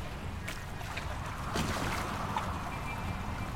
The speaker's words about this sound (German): Digga, das Boot ist shaky.